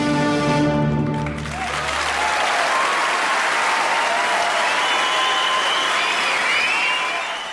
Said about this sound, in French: dans, ce concerto pour applaudissements, pour le coup, on a des applaudissements euh, malicieux, mais aussi une construction de l'applaudissement par euh, la musique.